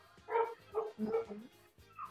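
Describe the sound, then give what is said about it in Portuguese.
A dog barks in a quick run of four or five sharp, fairly loud woofs, with a short pause before a final higher yip. No one speaks. “Tem a parte 2 do, do, do latido.”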